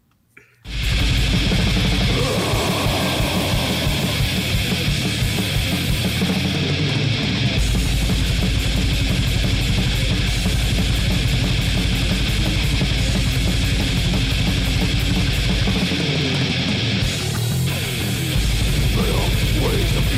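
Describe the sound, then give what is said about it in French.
A black metal track starts abruptly after a brief moment and then roars on without letup: a loud, dense wall of distorted guitars and pounding drums that fills the whole stretch. “On s'en va entendre ça.”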